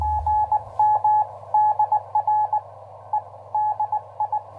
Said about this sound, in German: Heute zum Beispiel hat gerade ein US-Amerikaner auf Meyers Morse-Signale reagiert.